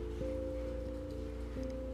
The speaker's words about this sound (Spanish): está lloviendo y ha estado así desde toda la tarde. Yo me encuentro en la ciudad de Guayaquil, en Ecuador.